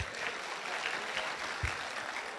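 An audience breaks into steady, dense applause, many hands clapping together in a sustained wash of sound that fills the room without any voices standing out.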